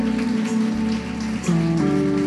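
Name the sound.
audience applauding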